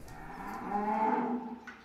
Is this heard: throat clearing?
no